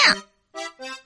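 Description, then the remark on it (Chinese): A voice imitates the story character Xiao Yingtao gnashing her teeth: one harsh, loud burst, then a pause and two shorter, strained, buzzing grunts in quick succession. “这是小樱桃咬牙切齿的声音。”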